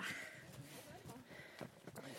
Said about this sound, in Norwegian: Og jeg hører du puster mer enn godt nok.